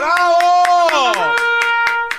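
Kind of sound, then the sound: crowd, hand clapping applause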